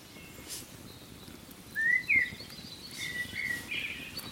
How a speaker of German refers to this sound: das Knistern des Lagerfeuers und das Schimpfen bis Trällern der Vögel.